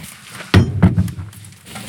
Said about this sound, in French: Ici, il y a une porte et il y a la même en face. Pourquoi Alors je l'ouvre, peut-être que tu vas tout comprendre